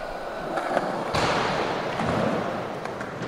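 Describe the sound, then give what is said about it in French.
A skateboard brakes with a heel dragging on pavement: a steady, gritty scraping roar that intensifies about a second in and grinds on continuously without any voices. “tu vas me poser ce talon pour freiner comme si tu étais en normal.”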